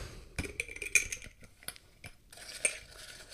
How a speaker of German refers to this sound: Und wenn ich jetzt das Glas öffne